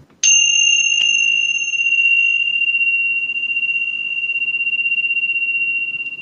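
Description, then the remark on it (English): A mindfulness bell is struck once, giving a clear, bright tone that rings on and slowly fades, sustaining for several seconds with a gentle shimmer. No voices, just the lingering chime. “now we're going to ring a bell here that shows you what mindfulness is.”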